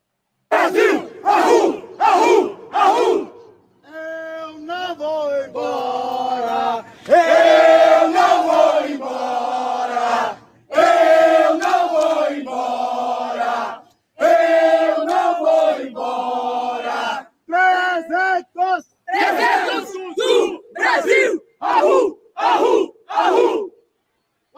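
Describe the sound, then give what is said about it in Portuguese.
A protest crowd in front of the Supreme Court chants slogans in unison, loud and rhythmic, with short sharp shouted bursts at the start and end framing longer sustained sung-out phrases in the middle. “Olha só, ontem de manhã, esses trogloditas aí que você vai ver foram para frente do Supremo para fazer um protesto completamente criminoso e ilegal e ainda gritar palavras de ordem como qualquer agrupamento neonazista.”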